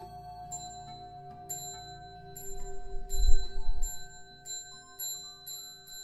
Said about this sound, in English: This story is for my grandma, for myself, and lastly, it's a tribute to that early morning great bell, ringing in a fresh day and a chance to begin again anew.